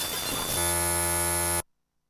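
A brief burst of crackling static gives way to a loud, steady electrical buzz rich in overtones, which drones for about a second before cutting off abruptly into silence.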